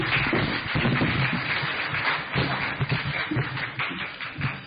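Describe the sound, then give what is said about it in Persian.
An audience claps steadily for several seconds, a dense crackle of many hands with no pauses, fairly loud throughout and without any talking over it. “مرسی تشویق کنید دوستان”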